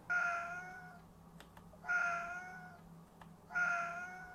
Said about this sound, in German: Katzen.